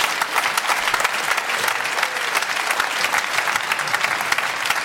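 A studio audience applauds steadily, a dense wash of many hands clapping at an even, fairly loud level throughout, with no voices standing out. The applause follows a replay of a football goal scored at the Bökelberg against Borussia Dortmund.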